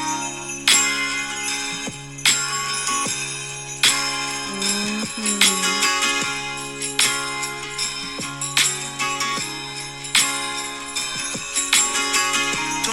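A recorded song plays steadily, with a bright guitar-driven band groove, a sustained bass note and regular rhythmic accents, clear and up front with no talking over it.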